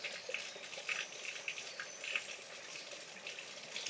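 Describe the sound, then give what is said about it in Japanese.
A steady hiss of flowing water, like a running tap or stream, with small splashy surges along the way. Fairly soft and continuous, no voices. “うん、意識した時しか水の音聞こえないですけど、うん、機械で取るとすっごい水の音する、”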